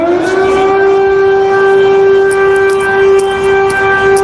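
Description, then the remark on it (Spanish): A loud air raid siren wails steadily across a city, holding a sustained droning tone with rich harmonics, slowly rising at the start, with faint street noise beneath and no talking. “La situación es muy extraña, no, no es una alarma que haya sonado antes y la gente yo creo que está todavía en estado de negación.”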